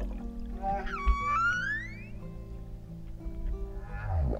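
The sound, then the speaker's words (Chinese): Humpback whale song: eerie rising whoops and drawn-out moaning tones with rich harmonics over a steady low rumble, swelling and fading across a few seconds with no voices. “哦，说到大赤金呀，就要说到他们的歌声啦。我们先来听听看他们的歌声。”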